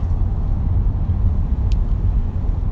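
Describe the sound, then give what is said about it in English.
A car drives steadily over a rough road through pine trees in Winston County, with a constant deep rumble and dense low-frequency road noise, punctuated by faint brief rattles and clicks. No one speaks. “Okay, I lost my train of thought because I'm trying to drive.”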